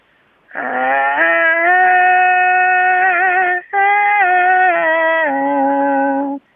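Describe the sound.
A voice imitates a haegeum, Korean fiddle, with a loud, nasal, sustained tone that slides between a few pitches, breaking once briefly mid-way before continuing for several seconds. No one talks.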